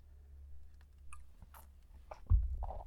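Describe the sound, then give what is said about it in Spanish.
Someone takes quiet sips of coffee, with small wet mouth clicks and swallowing sounds, then a soft low thud near the end. No one speaks. “Eh, pausa para trago de café.”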